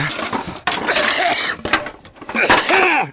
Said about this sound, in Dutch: en voor het kuchen natuurlijk.